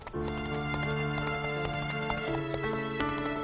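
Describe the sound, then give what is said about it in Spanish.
Horse hooves clip-clop in a steady, even rhythm as a rider makes a journey on horseback, with sustained musical tones playing underneath throughout. “¿Se imaginará ella que hago esta travesía a caballo para ir a su encuentro?”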